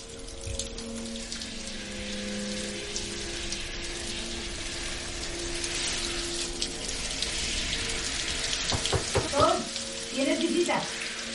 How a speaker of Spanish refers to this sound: Luego en casa Thor se da una ducha. El agua escapa por el desagüe